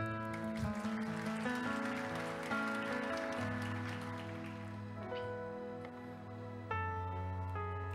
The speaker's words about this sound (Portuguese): Uma salva de palmas para minha esposa.